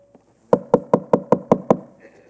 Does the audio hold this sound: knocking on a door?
yes